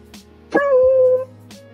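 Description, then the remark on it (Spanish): The family's pet female dog Negrita gives a sharp little yip that stretches into a steady, high-pitched whimper lasting about half a second, fairly loud, with quiet background before and after. “La negrita es una perrita muy regalona.”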